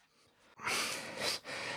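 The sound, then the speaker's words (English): After a brief near-silence, loud, harsh, breathy bursts of coughing and scratching of an itch on the back erupt, running in two rough stretches split by a short pause, with no talking. “as well as having to scratch, I had to cough my guts out there.”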